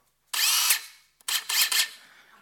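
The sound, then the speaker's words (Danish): A power saw whines through wood in two bursts, the second broken into a few quick surges, loud and high-pitched with brief silence between and no talking. “Nu får I lidt savsmuld ned i alterbrødet der, ikke?”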